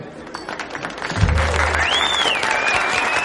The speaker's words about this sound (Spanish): Se separan y se quedan mirando. Sam se gira y aplaude.